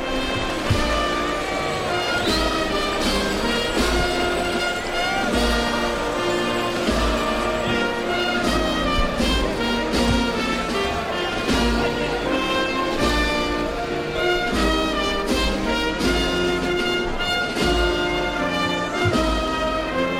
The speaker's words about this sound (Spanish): El himno nacional suena en la plaza de Jerez.